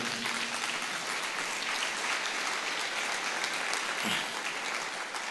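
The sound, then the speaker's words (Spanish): Sustained audience applause, a dense steady wash of many hands clapping at an even, fairly loud level for several seconds, with no one speaking over it. “Dale otro fuerte aplauso de gloria.”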